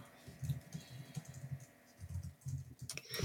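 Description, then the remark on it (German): Someone types a short text: rapid keystrokes on a computer keyboard, a steady patter of clicks in two bursts separated by a brief pause, ending with a sharper clack. No voices. “Ich habe kurz einen Text so. getippt.”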